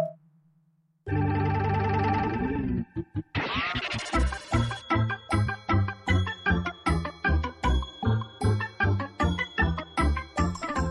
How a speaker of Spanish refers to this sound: Lo que acaban de escuchar es el más reciente material de los músicos